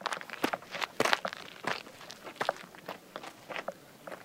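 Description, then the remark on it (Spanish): Footsteps walk steadily uphill up terraces toward the Huerta de la Mercería, moving from stone onto earth, each step a crisp, gritty crunch in an uneven rhythm of roughly a dozen treads, with no voices. “El suelo de piedra se convierte en tierra y subiendo los bancales llegamos a la huerta de la mercería.”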